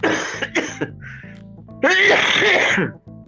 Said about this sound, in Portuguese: Tu tossindo e eu espirrando, cara. Dois velho.